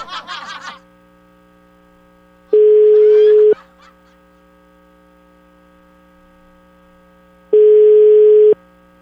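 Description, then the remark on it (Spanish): A radio station calling a woman by phone: a brief burst of chirpy dialing sounds, then two long, steady electronic ring tones about a second each, separated by a long silent gap. “Le vamos a marcar a la güerita pelo rojizo.”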